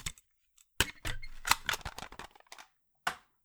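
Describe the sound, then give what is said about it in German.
A series of sharp plastic clicks and rattles as a cassette tape is unwrapped and inserted into a player, ending with one firm click after a short pause. Clear, no voices. “Kassette ist bereit. Bitte äh, packen Sie aus, legen Sie ein.”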